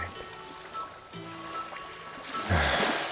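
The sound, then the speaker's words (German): Soft sea water laps and trickles at a sandy beach, with a fuller wash of a small wave rising near the end; no one speaks. “Überall nur Sand und das Meer.”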